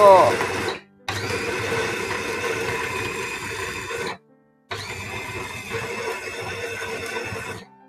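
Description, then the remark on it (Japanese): A loud blender grinds and rattles in three bursts separated by short pauses, its harsh motor noise straining as it chops through large dates. “デーツが大きいので、あの、最初ガタガタガタガタ言っちゃってなかなか攪拌されなくて。”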